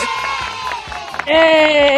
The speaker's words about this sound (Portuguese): Então, aí, agora sim, salva de palmas.